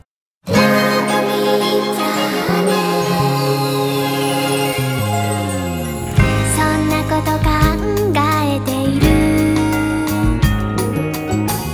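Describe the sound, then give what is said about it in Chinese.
Bright, jingly instrumental passage of a Japanese Christmas song, with chiming bell-like tones over a full, steady accompaniment that shifts into a busier section about halfway through. No singing is heard. “为了给大家推荐更多的圣诞歌曲，我就把歌曲都剪成了短版，所以接下来给大家带来的是一首具有圣诞气息的日语歌，我们一起来听听吧。”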